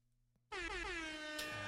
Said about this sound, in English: if you're going to have a horn button, at least uh, take some tips from the Canadians. Make it a big, big rig horn. Honk, honk.